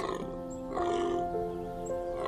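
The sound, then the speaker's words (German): A deep, drawn-out bellow like a stag's call, resonant, swelling and holding for a couple of seconds with no other sounds around it. “Mit tiefer, angenehmer Stimme antwortet ihm Hirschpapa Jort.”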